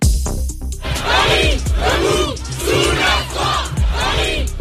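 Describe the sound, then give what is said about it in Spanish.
Thousands of protesters chant 'levántate' and shout in unison at Place de la Concorde in Paris, France, on a Thursday, against a contested pension reform raising the retirement age from 62 to 64: four loud rhythmic bursts roughly a second apart, voices swelling together over a constant murmur of noise. “París, eh, levántate, gritaban miles de manifestantes en la Plaza La Concordia de la capital eh, francesa este jueves en rechazo a la polémica reforma de pensiones que plantea retrasar la edad de la jubilación de 62 a 64 años.”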